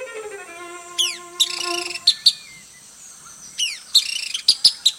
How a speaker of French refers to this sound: C'est un mâle manakin à tête d'or, Ceratopipra erythrocephala. Il pèse environ 10 grammes. Il a un corps compact avec un cou court et une queue courte, mais il déborde d'énergie. Il chante un piou sifflé aigu.